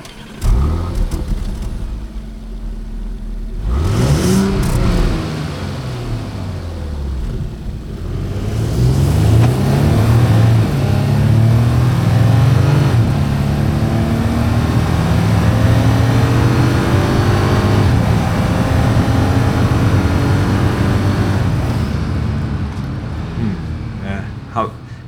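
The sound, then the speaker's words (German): A Porsche Cayenne SUV engine revs and accelerates, its pitch sweeping up and down in loud, sustained bursts with a brief rising rev early on, with some background noise. “Also es war ein Cayenne.”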